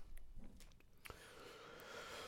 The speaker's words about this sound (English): All I can hear is you chewing on that thing.